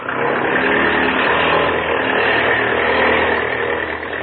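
A propeller plane engine roars at high power with the throttle opened wide for takeoff, a loud, steady, rough drone with a low throbbing hum underneath, holding an even level throughout with no voices.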